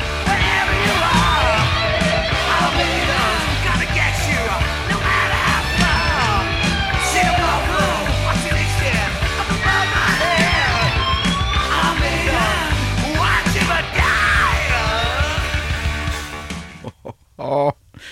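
A loud, dense heavy metal chorus with shouted, yelling vocals over pounding drums and distorted guitars, sustained at full intensity before cutting off abruptly near the end.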